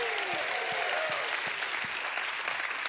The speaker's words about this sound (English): You ought to give God a hand clap and another shout of praise.